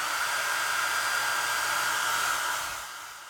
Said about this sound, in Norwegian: Hun kledde på seg undertøy og begynte å føne håret.